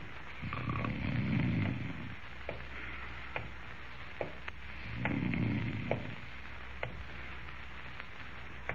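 A man snores twice, each a loud, rumbling, drawn-out breath, with a pause between them filled by faint scattered clicks and ticks in an otherwise quiet room.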